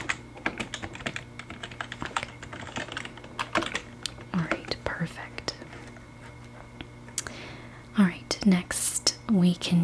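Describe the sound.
Soft, rapid computer keyboard typing clicks along steadily during a resort check-in, joined by quiet whispered speech and faint murmuring toward the end.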